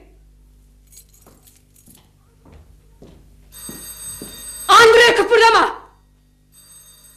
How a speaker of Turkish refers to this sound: Kıpırdama! O telefon benim için çalıyor.